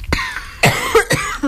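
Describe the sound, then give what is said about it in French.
A rapid fit of about four or five harsh, loud coughs in an uneven rhythm, each a raspy burst followed by a wheezy intake, with no talking. “Et quand tu, quand tu tousses, euh, tu deviens tout rouge.”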